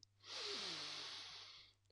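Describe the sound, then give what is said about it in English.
A single slow, steady inhale through the nose, lasting over a second, soft, with a faint low hum underneath and no talking. “And you want to be breathing in through your nose and out through your mouth.”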